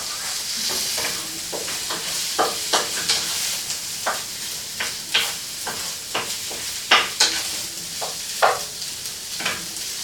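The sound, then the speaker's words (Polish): Corn sizzles steadily in a hot pan while a utensil stirs it, making irregular scraping clacks every half second or so over the constant bright hiss. No one speaks. “Wstawię i zamieszam, żeby nam się nie przepaliło i nie przewarło.”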